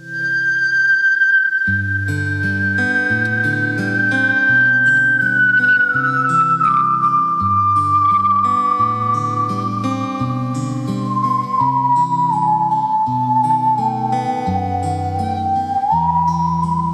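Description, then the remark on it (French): A musical saw sings a slow, gliding melody in long sustained notes that slide gently downward, carried over a steady accompaniment of low bass notes and chords, loud and continuous throughout. “Et quand c'est bien joué, la scie musicale, ben ça a de la gueule.”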